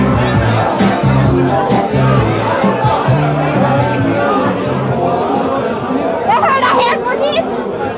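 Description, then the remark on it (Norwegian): Dense party crowd chatter, many overlapping voices forming a steady loud babble, with a few brighter raised voices or whoops poking through near the end. “For det første har jeg tappet bort aksjegrabbene i festsvermen her inne.”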